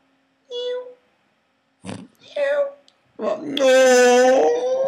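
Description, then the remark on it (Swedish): A voice imitates a young kitten, not very old, meowing: a short high mew, a brief break, two quick squeaky cries, then one long, loud, wavering meow. “ja men ljudet av en, en, av en liten eh, kattunge som inte är så gammal.”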